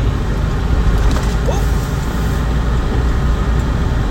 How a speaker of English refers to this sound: I can't turn on the heat to like one. I gotta have it on five. So I'm yelling in this hole because I know it's, it's all loud.